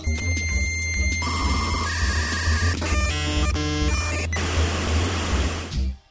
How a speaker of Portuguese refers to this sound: som de internet de 1990 e bolinha. Tá no ar.